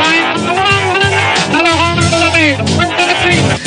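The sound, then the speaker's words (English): Harsh, crackly car radio playback of a game through busted car speakers, with a garbled voice and crowd-like noise smeared together at a steady, loud level for a few seconds. “stop riding around listening to busted speakers and subpar audio quality”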